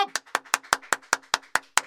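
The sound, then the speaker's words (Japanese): A steady run of about ten hand claps at an even, brisk pace, each one sharp, in a small two-and-a-half-tatami radio studio, with a faint background murmur between them. “拍手しながらね目が曇ってますよ”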